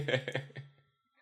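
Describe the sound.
A person makes a quick vocal sound effect, a few bouncy voiced syllables that trail off within a second, mimicking the sound of putting on glasses and seeing things clearly. Moderately loud.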